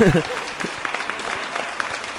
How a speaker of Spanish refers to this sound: Yo creo que se merecen unos aplausos honorosos de...